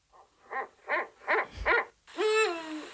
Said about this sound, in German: Hör mal, die klingt hier aber auch wirklich, Entschuldigung, aber das ist doch ein rammelnder Uhu, hör mal.